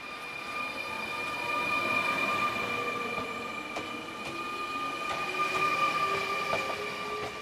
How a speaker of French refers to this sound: Voici le TGV numéro 8084. Prenez garde à la fermeture automatique des portes. Attention au départ.